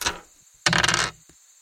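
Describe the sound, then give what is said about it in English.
Percentile dice (D100) clatter across a hard tabletop, a brief tap first, then a loud rattling tumble lasting about half a second, ending with a single faint click as they settle, the roll coming up 100. “Somebody roll me a D100 percentile dice.”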